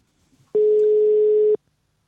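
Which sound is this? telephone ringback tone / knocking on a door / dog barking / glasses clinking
telephone ringback tone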